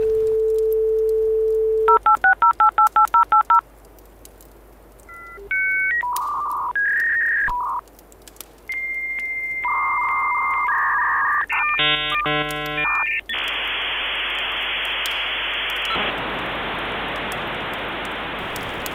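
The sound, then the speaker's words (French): A dial-up modem connecting: a steady dial tone, a quick run of touch-tone beeps, then warbling, screeching handshake tones that give way to loud, sustained static hiss. No one speaks. “Et le temps passe et là on est vraiment sur internet, vous l'avez entendu, ça y est, c'est euh, bon, c'est ça commence à être là.”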